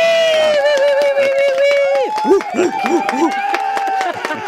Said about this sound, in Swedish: Oj, oj, oj, en riktig applåd här också.